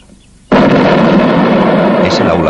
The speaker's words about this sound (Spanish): Una explosión conmueve el campus.